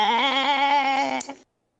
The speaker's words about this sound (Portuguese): Nesse momento eu fui mordido por um bode. Bé!